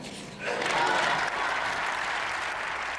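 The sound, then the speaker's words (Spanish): Sustained applause fills the European Parliament chamber for Zelensky, a dense wash of many hands clapping that swells in after a brief quieter moment and holds steady without letup. “Con aplausos, Zelensky en el Parlamento Europeo.”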